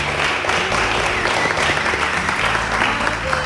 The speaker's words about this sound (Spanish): Le damos un aplauso, si os parece.